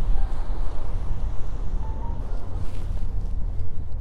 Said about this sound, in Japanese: 今日は本当に、まあ、午後なんですがあの波が穏やかで空が青くて富士山もはっきり見えてまして、えーまあ、風は冷たいんですけどすごい綺麗な海が目の前に広がってます